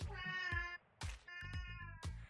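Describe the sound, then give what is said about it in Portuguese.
A cat meows repeatedly, drawn-out and insistent, with a brief pause between the first cry and the next two. It is not loud, with no talking over it. “Que, cara, ó o gato.”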